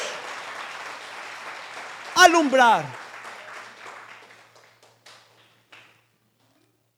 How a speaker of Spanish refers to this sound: Recibieron apocalipsis, recibieron revelación y es bueno que le des un aplauso a la palabra de Dios.